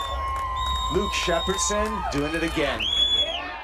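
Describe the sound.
A crowd cheers and whoops at Oahu lifeguard Luke Shepardson surfing a massive wave during the Eddie Aikau Big Wave Invitational, a steady roar with occasional high shouts rising above it, while a man speaks excitedly over the noise.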